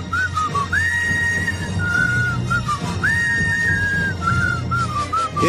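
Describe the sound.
A person whistles the Star Wars film theme melody, clear tonal notes rising and sliding in a steady tune, fairly loud over a low background hum, with no talking.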